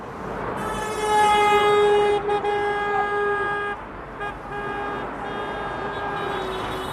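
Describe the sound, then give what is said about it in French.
A loud, sustained truck horn blares for about three seconds over a steady roar of cars and trucks passing on the open side of a motorway, honking in support of farmers blocking the other side with tractors, then cuts off while the vehicle rumble continues. “Et écoutez l'ambiance, l'autre voie de l'autoroute, elle, est ouverte, les voitures et les camions circulent et soutiennent les agriculteurs.”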